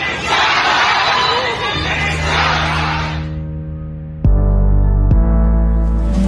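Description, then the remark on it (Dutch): A crowd shouts and chants together for a few seconds, then the voices fade under a steady, droning tonal sound that grows suddenly louder and holds to the end. “Misschien wel 200 mensen staan hier op de Dam.”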